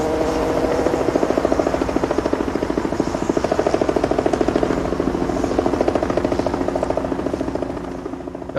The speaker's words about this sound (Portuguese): Começa já mal, porque começa com o logo da Fox, sem a música e com o som de uma mosca que, olha que eu achei legal isso, ela se funde com o som de um helicóptero.